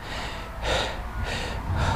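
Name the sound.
deliberate loud breathing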